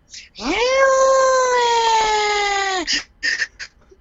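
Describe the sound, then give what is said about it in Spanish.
A voice imitates a fire engine siren: one long wail that swoops up and then holds for a couple of seconds before cutting off, followed by a few short vocal bursts. “Oye, pero hazte una sirena de bomberos, pues, para complacer a, los que me pidieron eso.”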